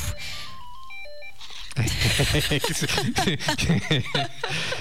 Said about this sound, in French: Sur le coup, je me disais, il y a un téléphone qui sonne. Eh ben non. Ah ben si.